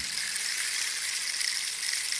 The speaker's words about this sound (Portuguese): Chover, olha, chover. o doutor é um, é um homem dos sete instrumentos, já viu? Já, já cantou karaoke, agora é pau de chuva.